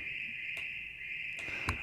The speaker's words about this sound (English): I can put it through reverb so it sort of disappears. Sounds like crickets on a summer night, doesn't it? Or froggies? It does. It sounds like. Like you're out in the country and there's a little froggies.